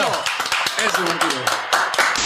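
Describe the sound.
A crowd breaks into applause, a dense, steady patter of many hands clapping at a fairly loud level, with voices calling out over it.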